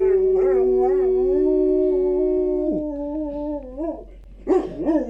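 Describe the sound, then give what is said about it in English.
A dog howls in a long, sustained wail that wavers and drops in pitch, then breaks into shorter yelping whines near the end; fairly loud, with no talking. “Oh, your dog doesn't like that.”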